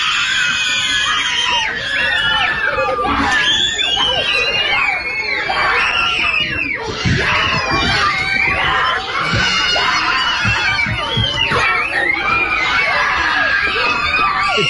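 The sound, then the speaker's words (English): A large group of schoolchildren cheers and screams in loud, continuous excitement after a teacher announces they no longer have to wear masks, many high voices overlapping in a chaotic celebratory roar that stays intense from start to finish. “teacher comes out and says, you kids no longer have to wear masks. Listen to the celebration.”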